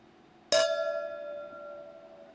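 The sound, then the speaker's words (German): A single sharp clink of beer glasses touching in a toast in Franconia, Germany, followed by a bright ringing tone that lingers and slowly fades, with no voices. “Bevor ich die Frage beantworte, nehme ich jetzt mal mein Glas und wir stoßen an.”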